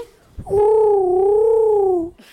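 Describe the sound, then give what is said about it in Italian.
A single drawn-out turtle dove coo, one smooth, steady tonal note lasting over a second, loud, with a slight waver in pitch, heard on its own without any talking. “la mia tortora Siki”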